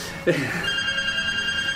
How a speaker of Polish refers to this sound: Ktoś jeszcze dzwoni. Komórki.